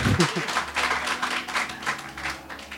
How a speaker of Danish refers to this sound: Se, der klapper I. Det er dejligt.